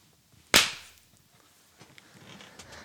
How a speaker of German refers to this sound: Es wird wieder in die Hand geklatscht.